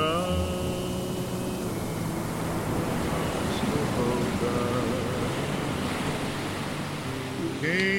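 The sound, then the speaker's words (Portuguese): A steady, continuous roar of ocean surf washing against the shore fills the whole stretch, with faint tonal sounds drifting in at the start and end. “E suas ondas que quebram na pedra ou nas areias carregam consigo uma história milenar.”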